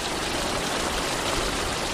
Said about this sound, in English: Irrigation water gushes out of a pipe into Betancourt's field. It will keep flowing like this for 48 hours until he shuts the pipes off.